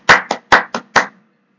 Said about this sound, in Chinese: 来吧，鼓掌。